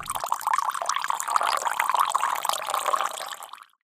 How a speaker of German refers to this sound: Ach, wenn es einen Kaffee gäbe, das wäre ganz lieb. Okay, gieße ich hier einen Kaffee ein.